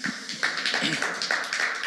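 A church audience applauds Matthew McConaughey, a steady wash of many hands clapping at once, dense and fairly loud, continuing without pause for a couple of seconds.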